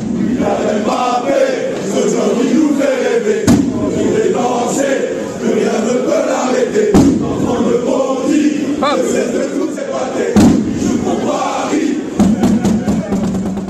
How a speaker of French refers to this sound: Les ultras du PSG ont une surprise pour Bappé qui va bientôt devenir le meilleur buteur de l'histoire du club. Il s'approche du record de Cavani, 200 buts. Les ultras entonnent pour la première fois un chant à son honneur.